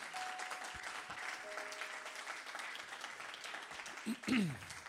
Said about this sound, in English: Somebody give the Lord, if you believe that, give the Lord a hand clap.